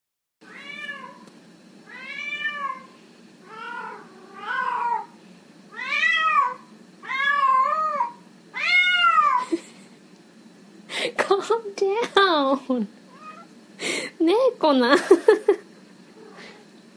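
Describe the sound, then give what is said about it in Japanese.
A cat meows over and over, about seven drawn-out, wavering calls in a steady rhythm, fairly loud, before a person starts talking. “あねそういう時期なんよね 猫なん困っちゃうね”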